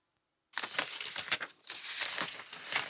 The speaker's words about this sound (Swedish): Vi börjar att bläddra bland artiklarna för att pappa vill visa mig några exempel på vad som skrevs i svensk press om FNs aktion i Kongo.